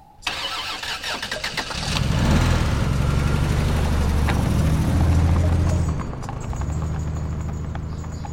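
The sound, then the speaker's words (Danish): A car engine cranks and starts, then revs and rumbles steadily as the vehicle drives off, loud, with a low droning hum throughout and no talking. “Og så kører de den ind til Joanna.”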